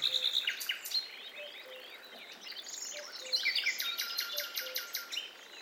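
Forest animal sounds from many different species deep in a leafy forest: a dense chorus of overlapping bird chirps, trills and whistles over a steady, high insect buzz, with brief low tones, continuous and fairly even in loudness throughout.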